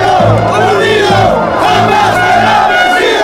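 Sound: protesters shouting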